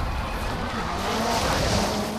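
A newer Subaru rally car driven by Block drifts under a tractor trailer at the port of Los Angeles in Gymkhana 2, tires squealing and skidding over a steady roaring engine, loud, continuous for a couple of seconds with no pauses.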